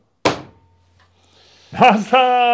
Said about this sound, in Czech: A já bouchám dveřma. Jo. Bouchej.